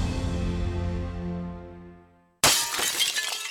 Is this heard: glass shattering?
yes